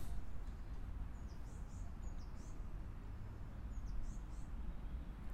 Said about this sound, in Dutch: Verschillende vogels fluiten over elkaar heen.